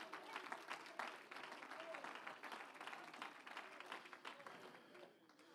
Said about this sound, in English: Come on, give the Lord a hand clap of praise now. Come on, give him a hand clap of praise.